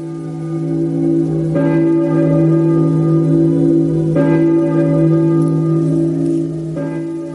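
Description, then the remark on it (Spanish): Church bells ring out loudly in slow succession, three clear strikes a few seconds apart, each one's rich metallic tone lingering and overlapping the next. No voices are heard. “Atraídos por el sonido de las campanas, nos vamos a la iglesia, a rezar por nuestras almas,”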